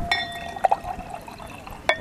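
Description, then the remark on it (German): Wine splashes and gurgles as it's poured into a glass, with a few bright glassy clinks ringing out over a quiet background. “Bitte schön. Ich glaube, Sie haben noch kein Gläschen.”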